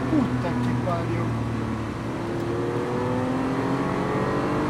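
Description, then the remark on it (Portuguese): A Volkswagen Beetle engine revs loudly while racing, a steady buzzing drone whose pitch climbs and dips as the car accelerates and eases off through the corners, including a tight right-hand bend. “Fusca, aqui é uma festa bem fechada pra esquerda.”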